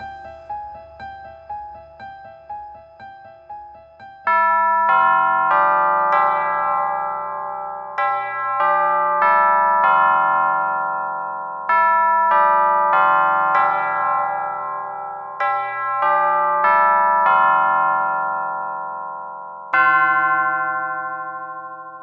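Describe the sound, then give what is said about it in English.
A clock chimes in the middle of the night, a slow melody of ringing bell tones, each strike lingering and fading into the next, loud with no voices. “It is the middle of the night, and the clock has struck once.”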